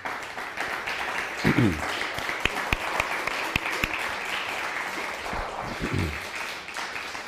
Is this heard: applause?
yes